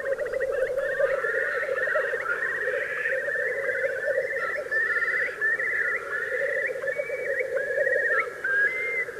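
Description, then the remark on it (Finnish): A Eurasian curlew calls in a long, continuous series of rising, bubbling whistled notes, clear, over a steady droning chorus of background wildlife. “Viikon luontoääni: Kuovi”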